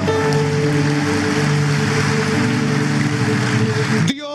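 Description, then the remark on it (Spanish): A church audience claps loudly and steadily in applause to the Lord during a morning service, with shouts of victory mixed into the dense crowd noise over sustained musical tones, until the sound cuts off abruptly near the end. “Deme un fuerte grito de victoria en esta mañana, iglesia. Vamos. Fuerte ese aplauso al Señor”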